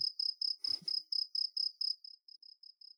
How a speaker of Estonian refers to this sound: meil on vaja ikkagi see panna siia selle rohelise nupu alla. nagu see äh, rohutörtsu heli või?